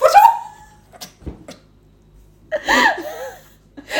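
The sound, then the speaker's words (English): A voice imitates a throwing sound: a sharp, falling vocal cry at the start, a few soft clicks and breaths, then a second strained, wavering vocalisation a couple of seconds later. “That was the sound of me throwing.”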